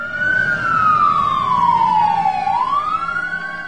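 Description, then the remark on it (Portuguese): A police siren wails steadily, its loud tone sliding slowly downward in pitch before sweeping back up, with a low rumble of traffic underneath and no voices. “Mas o que é isto? Maldição! Quem terá avisado a polícia?”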